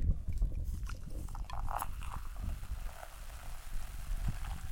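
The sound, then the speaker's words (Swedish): Champagne being poured into a glass, a steady fizzing and crackling pour with soft gurgles, lasting several seconds with no voices. “ni ska höra när jag häller upp i alla fall.”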